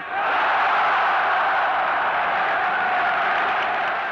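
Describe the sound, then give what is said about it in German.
A crowd of about 14,000 at the Berlin Sportpalast on 18 February 1943 applauds and cheers in answer to Joseph Goebbels' question-and-answer speech, a dense, roaring wash of clapping and shouts that holds steady and loud for about four seconds, easing only slightly at the end. “Das Frage-Antwort-Ritual, mit dem Reichspropagandaminister Josef Goebbels das Publikum zu immer lauterem Beifall aufstachelte, ist in die Geschichte eingegangen.”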